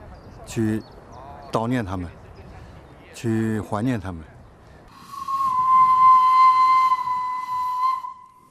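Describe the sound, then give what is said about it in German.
A man speaks briefly, then a steam train lets out a long, steady, shrill whistle lasting several seconds over a rushing hiss of steam, fairly loud. “In Zügen wie diesem kamen sie damals an.”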